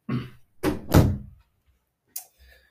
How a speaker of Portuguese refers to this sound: Espera aí, deixa-me fechar a porta, senão a minha mãe ainda aparece para aqui.